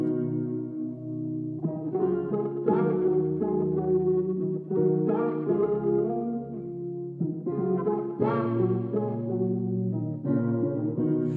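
A pop song intro plays steadily with layered sustained synth chords and a firm bass line, shifting chords every couple of seconds, with no singing yet and a washy, effect-heavy sheen.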